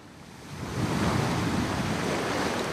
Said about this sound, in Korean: 신기해. 파도 소리를 들으면 잠이 잘 와.